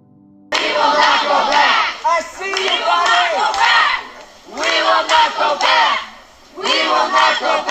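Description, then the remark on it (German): A crowd of pro-choice activists loudly chanting and shouting in rhythmic bursts, with short pauses between phrases, gathered in protest outside a judge's house. “Was Sie hier eben gehört haben, ist das Protestgeschrei der Pro-Choice-Aktivisten, die sich vor dem Haus des Richters Brad Kavanaugh versammelt haben”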